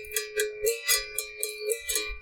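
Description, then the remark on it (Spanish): A berimbau is struck with a stick in a steady run of about eight twangy, ringing notes, a coin held against it, each hit paired with the bright shaking rasp of a caxixi, a little maraca-like rattle that sounds with every strike. No one speaks. “sino que tiene esta moneda que yo agarro y tiene el, cachichi que es como una maraquita que suena cada vez que yo le pego, no es que la suena aparte.”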